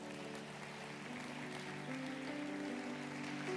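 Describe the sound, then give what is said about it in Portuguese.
A church audience applauding God for a scripture reading, a dense, even patter of many hands over sustained keyboard chords, continuing at a fairly constant level for a few seconds. “Dá um glória a Deus. Aplauda Ele por essa palavra.”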